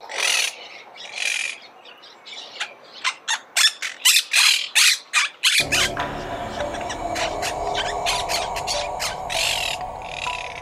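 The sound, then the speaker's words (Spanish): A parrot squawks loudly again and again in a quick, uneven series of harsh, piercing calls. Partway through, a dense steady background noise rises beneath the continuing squawks. “Loro.”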